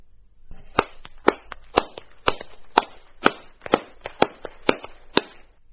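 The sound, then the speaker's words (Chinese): An audience claps hands in a different, unfamiliar way during a group exercise, unevenly, with sharp individual claps spiking above a softer scattered patter; the clapping sounds thin and less forceful than their usual clapping, lasting several seconds with no talking. “现在来看看，用另外一种方式来拍手。”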